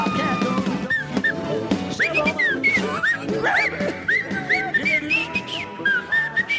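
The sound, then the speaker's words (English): A person whistles a wavering, sliding tune with quick up-and-down swoops, loud, over a busy background of other sounds. “every time you do that, A whistle makes everything dumber.”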